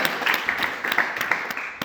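An audience breaks into applause, a dense, steady crackle of many hands clapping at once, sustained evenly for a couple of seconds with no talking over it.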